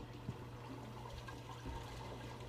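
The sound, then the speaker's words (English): A toilet flushing, heard through an uninsulated basement as a steady, muffled rush of water that carries on through the whole moment, with a low hum underneath and no one talking. “That's a toilet flushing.”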